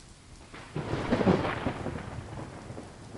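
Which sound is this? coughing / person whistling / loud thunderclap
loud thunderclap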